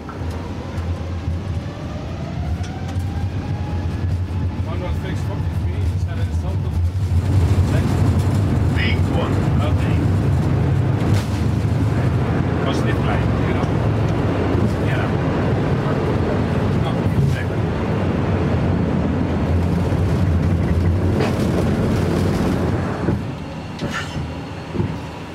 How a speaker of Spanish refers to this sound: Ya estamos en el aire, al recogerse el tren de aterrizaje, las ruedas del avión, ha bajado el ruido muchísimo, aunque el zumbido siempre está ahí, y aquí dentro, durante un segundo, la sensación ha sido como que te lanzan al espacio,